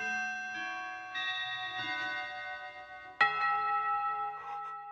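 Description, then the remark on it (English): A clock chimes the hour at one o'clock: a slow sequence of ringing bell tones, followed by a sharper, louder strike that rings out and sustains. Clear, with no voices. “The clock, it struck a quarter past. Half past. A quarter till.”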